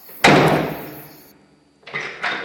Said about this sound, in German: Da gehen wir jetzt raus. Da, ah, da ist wieder die Tür.